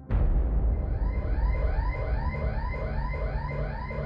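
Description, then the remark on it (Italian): A loud house burglar alarm sounds continuously at night in December 1989, its electronic tone sweeping up and down in a steady repeating pattern over a low rumbling background, with no voices. “Ma quando ormai è rimasta sola, l'allarme di casa sua squarcia la quiete della notte.”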